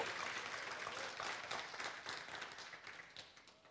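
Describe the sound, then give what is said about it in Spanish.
An audience breaks into dense, steady applause in thanks to God, many hands clapping together in a broad crackling wash that stays strong before gradually thinning out toward the end. “¿No creen, hermanos, que es motivo de darle gracias a Dios y un fuerte aplauso porque es tan bueno?”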